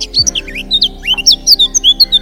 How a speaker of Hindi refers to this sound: भाइयों यह जो पशु पक्षी हैं ये हमारे आसपास बहुत शोर करते हैं और बहुत गंदगी फैलाते हैं